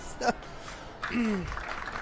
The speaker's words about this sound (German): Applaus.